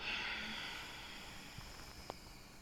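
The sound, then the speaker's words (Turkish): A slow, breathy exhale through the mouth during calm belly breathing, after the breath is held for one or two seconds, a soft airy hiss that is strongest at the start and gradually fades away, heard alone without any talking. “Sonra bir iki saniye duruyoruz, veriyoruz”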